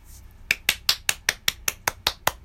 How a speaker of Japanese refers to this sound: ガチで拍手しちゃったよ。